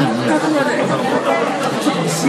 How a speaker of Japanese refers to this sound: 隣の声が聞こえすぎるっていうのと